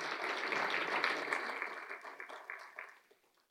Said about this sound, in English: Try that again. That clapping didn't sound very convincing. Let's try that again. Unless your unless your hands are broken.